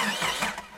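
A car engine cranks and catches in a brief, rough burst of mechanical noise, moderately loud, fading slightly at the end. The car is on Susak, a small Croatian island without paved roads or cars.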